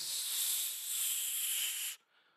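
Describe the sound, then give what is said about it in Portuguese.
A steady, bright hiss of hairspray (laque) from an aerosol can, sprayed onto a client's hair in a hair salon, in one continuous burst of about two seconds before cutting off abruptly, leaving only a faint trailing hiss. “E aí, no cabelo da outra, né, da cliente, o narrador passou laque.”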